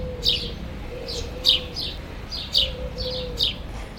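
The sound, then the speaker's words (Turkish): Birds chirp in short, repeated bursts about once a second in the empty yard of a small state school of about 100 students, over a quiet outdoor hush with a faint steady hum beneath. No voices are present. “Normalde hafta içleri ilk ve orta sınıfların cıvıltısı ve gürültüsüyle yankılanan bu bahçede salgın koşullarından dolayı kuş sesinden başka hiçbir şey duyulmuyor.”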